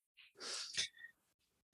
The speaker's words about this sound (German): ja, man hat es, man hat es schwere Atmen, glaube ich, wahrgenommen.